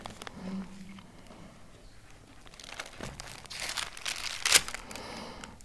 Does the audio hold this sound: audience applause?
no